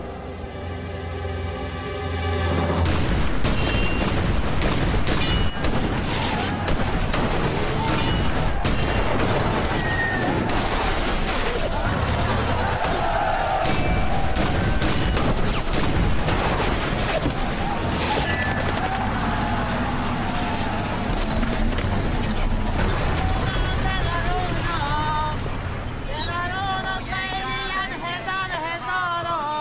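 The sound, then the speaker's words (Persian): After a brief tonal lead-in, a dense, sustained artillery barrage erupts: loud, overlapping booms and cracking blasts roll on without pause for nearly half a minute, with faint voices mixed in; the artillery fires on a colonel's order during battle. “أعطي أمر للمدفعيات بالغذف”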